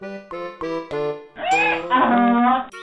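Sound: donkey braying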